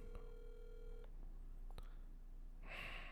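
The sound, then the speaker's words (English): A telephone line rings with a steady electronic tone for about a second during an outgoing phone call, followed by a faint click and a short hiss of noise, with nobody talking. “She usually doesn't let it ring past three, but she's probably getting some action right now.”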